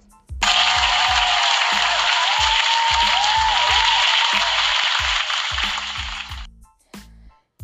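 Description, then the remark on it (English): A burst of loud, dense applause swells in and holds steady for about six seconds before cutting off, with a low thumping beat pulsing underneath. “yo, round of applause for”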